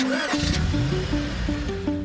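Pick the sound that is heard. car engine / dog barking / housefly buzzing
car engine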